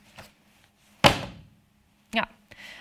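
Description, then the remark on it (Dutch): A heavy book, the thick volume Op de Vuist by Laurens Ham, is dropped onto a hard surface with one loud, solid thud that rings out briefly, followed about a second later by a softer knock. “En ik laat het even vallen, want dan hoort u hoe dik het is.”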